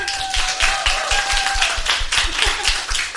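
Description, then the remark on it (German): A crowd applauds with dense, steady clapping that stays loud throughout, many hands overlapping, with a faint thin tone lingering in the background. “einen donnernden Applaus für Mathilde Kaiser”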